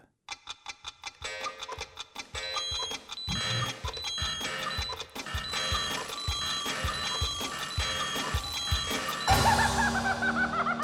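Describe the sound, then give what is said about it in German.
Steady clock ticking opens, joined by layered electronic beeping tones that build up, then a loud, bright alarm clock ringing bursts in near the end. No voices. “Ah, zum Glück kommt am Schluss der Wecker.”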